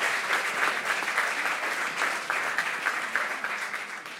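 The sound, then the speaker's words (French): An audience applauds Stomy Bugsy, who is present, clapping steadily for several seconds, a dense, continuous patter of many hands at an even loudness with no voices standing out. “je salue la, présence de Stomy, qui est là, Stomy Bugsy, qu'on peut applaudir, parce que Stomy, tu te donnes de la force.”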